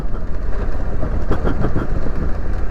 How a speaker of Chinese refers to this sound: 清凉的溪水伴随着迷人的引擎声，这就是冬天呐。